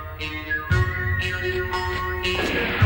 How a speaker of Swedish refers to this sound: Mungiga och vissling.